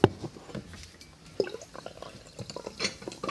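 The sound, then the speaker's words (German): Apple juice being poured into a glass to make a mixed drink, a soft splashing trickle broken up by a couple of sharp glassy clinks near the start and middle, fairly quiet, with no voices. “Das müsst ihr ins Glas gießen. Oder normales Wasser, kommt drauf an. Jetzt kannst du, Luisa. Dann äh, Apfelsaft rein.”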